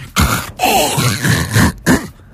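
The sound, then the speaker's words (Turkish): A voice imitates the gurgling, throat-clearing sputter of the pump on a large water carboy as its water runs out: three loud, rough, guttural bursts with a longer rattling one in the middle, no words. “pompadaki boğaz temizleme sesiyle anlaşılan damacanadaki suyun bitmesi.”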